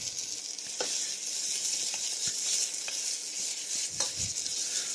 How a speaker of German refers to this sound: ob jetzt hier noch sich eine Veränderung einstellt und wie lange man hier den Teigklumpen äh, im Topf rühren muss, aber bin durchaus bereit, solange sich das hier nicht bösartig verfärbt oder schwarz wird, hier noch ein bisschen weiter zu rühren.